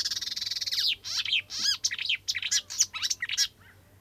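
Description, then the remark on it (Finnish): A marsh warbler sings a fast, varied stream of chattering and whistled phrases, with a barn swallow twittering faintly in the background and a low steady hum underneath. “No sitten otetaan toinen luhtakerttonen, niin kun ette usko kerralla”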